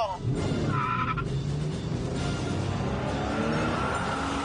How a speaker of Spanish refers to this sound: Hoy, nomás para que oigas qué bien suena el claxon de mi Ferrari.